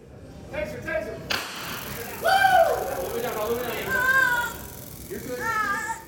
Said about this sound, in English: The sound you're hearing is of a person being tased. A taser is an electroshock gun used by police departments to subdue people believed to be resisting arrest. But this woman is actually an employee of Axon, a company that makes the taser weapon